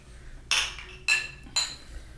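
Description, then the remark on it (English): Glasses of Flor de Caña rum and Pepsi clink in a toast: three bright clinks ring out in quick succession, about half a second apart, each with a short shimmering decay, fairly loud over a faint low background hum. “Rum and Pepsi is fire, bro. Salud, guys. Cheers.”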